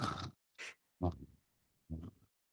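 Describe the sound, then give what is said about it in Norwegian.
A person imitates snoring, making four short, rasping snort-like bursts with brief gaps between them. Some are breathy, others throaty and voiced, with no speech. “Det var meg som snorka, for det var snork.”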